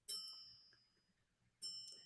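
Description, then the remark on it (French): A landline telephone rings twice during a live broadcast, two bright electronic trills about a second and a half apart, each ringing out and fading, clear with quiet between. “J'ai mon téléphone qui sonne, mais je, trouve ça étrange qu'on m'appelle sur mon fixe.”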